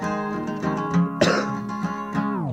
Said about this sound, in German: ein Husten. Finde ich ganz charmant.